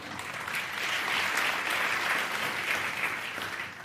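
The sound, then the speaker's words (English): A studio audience claps steadily for about four seconds, a dense, even wash of applause that stays at a constant level without anyone speaking over it. “and the sheep not applauding.”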